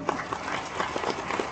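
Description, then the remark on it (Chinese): Dense, steady clapping from a crowd applauding the company Aidomei (爱多美), a rapid crackling patter of many hands that holds at an even, moderate level throughout, with no voices. “所以给我们爱多美公司再一个掌声。”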